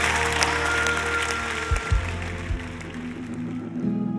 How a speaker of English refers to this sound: Everyone who receives this word, clap your hands and say amen.